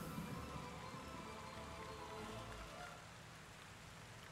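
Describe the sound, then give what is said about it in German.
Steady rain falls throughout, a dense, even hiss of drops spattering on surfaces, easing slightly softer toward the end. No voices. “als der Regen euer Blut mit dem Schlamm des Bodens vermengt hat”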